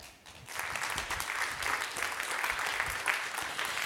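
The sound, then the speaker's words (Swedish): Steady applause from a crowd welcoming a man who works as a cycling police officer, a dense crackle of many hands clapping that swells in after a brief quiet start and holds at an even, fairly loud level throughout. “Ge honom en varm applåd.”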